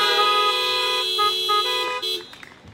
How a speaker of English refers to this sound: Oh, we can hear some horns honking, some clapping.